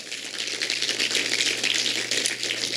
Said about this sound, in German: Können wir ihm gerne Applaus geben, nicht mir, sondern dem Herrn.